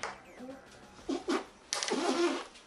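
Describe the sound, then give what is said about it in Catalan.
Strained mouth and throat noises from someone trying to swallow a spoonful of dry cinnamon powder in under a minute without water: a couple of short rasping bursts, then a longer wheezy, whining stretch. “Ara parlant de pols, en passar-se una cullerada de canyella en pols en menys d'un minut sense utilitzar aigua. Aquest és el resultat sonor.”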